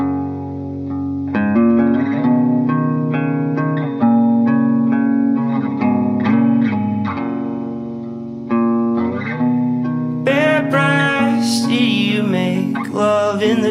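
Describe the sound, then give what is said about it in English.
A song plays as an outro: loud, effects-heavy instrumental music with sustained distorted tones and shifting chords, swelling brighter and fuller near the end, with no voices. “Um, and uh, if there's nothing else, um, we'll we'll have the song play us out.”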